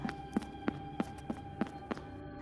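Quick, evenly spaced footsteps of someone running back to warn friends, about eight sharp thuds in a steady rhythm, moderately loud, with no talking.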